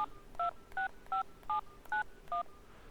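Six short touch-tone beeps from dialing a phone number to call someone, each a brief dual-pitched chirp spaced at a fairly even, quick pace, clear with no one talking.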